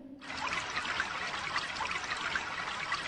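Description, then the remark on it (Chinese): Water starts flowing abruptly after a brief moment and keeps running steadily, a bright, hissing, splashing rush with no pauses and no voices. “你听到水流水流声了吗？”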